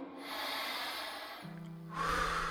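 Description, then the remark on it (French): A long, airy, steady inhale through the nose as a breathing exercise, followed by a short hum and then a louder, rougher rush of breath. “J'ai commencé vraiment simplement avec une application où euh, voilà qui expliquait euh, dans un premier temps faire des exercices de respiration inspirés par le nez,”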